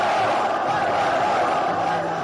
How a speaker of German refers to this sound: Präsident Herbert Heiner will die Wortmeldungsliste schließen. Wieder gellende Pfiffe. Sogar Heiner Rausrufe werden laut.